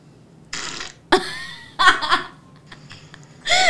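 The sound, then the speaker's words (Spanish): Several short, raspy fart noises burst out one after another at irregular intervals, fairly loud, with bits of laughter mixed in between them. “Oye, ese es un pedo visador de que quiere ir al baño.”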